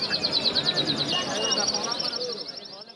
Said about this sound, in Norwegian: du holder fugler i bur, må du ta vare på dem som om det var dine egne barn, sier fugleselger Tana